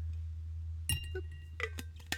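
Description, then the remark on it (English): A few bright glass clinks ring out over a steady low hum, with a soft swallowing sound between them, as someone sips a drink from a glass. “Let's take a sip. Hold on.”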